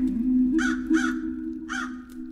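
A crow caws three times, two harsh calls in quick succession and then a third after a short pause, heard over a steady low droning hum.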